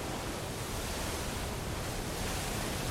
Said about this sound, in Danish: Vinden er i sydvest, og den blæser ham lige mod Lolland. Men nu er det altså begyndt at blæse op. Bølgerne rejser sig omkring den lille røde gummibåd.